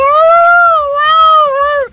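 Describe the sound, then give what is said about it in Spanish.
A person imitates a howling dog with one long, high, wavering wail that holds steady for about two seconds, then drops in pitch and fades at the end. “se escuchaban aullidos de un perro”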